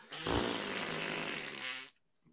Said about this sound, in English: We're gonna blow the Vikings horn because before the game even starts, they're gonna lose.